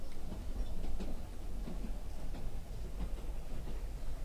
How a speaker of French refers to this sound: Tout en paix, à part le bruit du train.